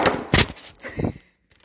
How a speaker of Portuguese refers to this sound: Tá, ele derruba. Desculpa o barulho, tá? Caiu o celular.